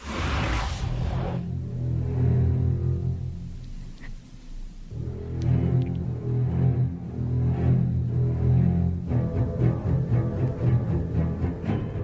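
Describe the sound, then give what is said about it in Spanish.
Tense orchestral shark theme music from the film Jaws (Tiburón), played in a music-guessing quiz, dominated by deep, sustained low strings that swell in loud waves with brief pauses between phrases, played alone without any talking. “Ay, pues es obvio que es Tiburón.”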